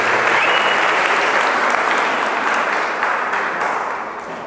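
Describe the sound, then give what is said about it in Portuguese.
A crowd's sustained applause for the actors, dense and loud throughout, many hands clapping together before easing off slightly at the very end. “Uma salva de palmas para os atores.”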